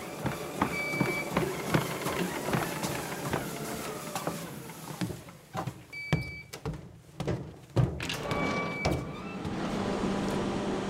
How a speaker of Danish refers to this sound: Vi kom ned i maskinen, og lige nu står vi i det, der hedder hovedmotorrummet. Her kan man se vores fire hovedmotorer, hver motor har 8.000 hestekræfter. Så det vil sige, at vi alt har 32.000 hestekræfter, når vi giver den fuld gas.